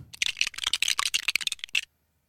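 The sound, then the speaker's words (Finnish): A rapid burst of crisp, bright clicks from building with Lego bricks in a Lego video game, rattling unevenly for about two seconds before stopping abruptly. The clicks are fairly loud, with no voices. “Tuossa on kyllä, tässä on mun mielestä tosi miellyttäviä kliksahduksia paljon.”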